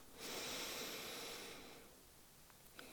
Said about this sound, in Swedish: Och där kan du släppa taget om handen eller om näsborren och bara andas en liten stund genom båda näsborrarna.